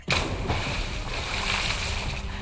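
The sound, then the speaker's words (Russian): A heavy splash as a young woman slips from a horse's saddle on a bridge into a deep river, followed by a couple of seconds of loud churning and sloshing water, with no voices. “Испуганный конь с храпом взвился на дыбы, и не успели люди броситься на помощь, как девушка соскользнула с седла в реку.”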